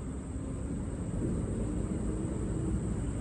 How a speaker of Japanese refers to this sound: これはステレオで録音してるんですがどんな風に聞こえるんでしょうね車の音とか川の水が流れる音とかあとは何か聞こえるんでしょうかね虫が鳴いてますねあとはちょっと車がうるさいですね